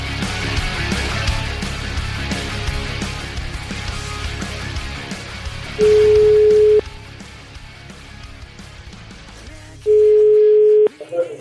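Two steady, mid-pitched telephone ringback tones, each about a second long and a few seconds apart, sound over a muffled, noisy background, the pattern of an outgoing call to a man from Naples ringing before anyone answers.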